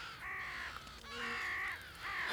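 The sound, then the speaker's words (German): Harsh, raspy screeches from birds flying in a zigzag, up and down, repeat in three drawn-out calls, loud, with no voices present. “Dieses Geschrei, das, das ist richtig unheimlich.”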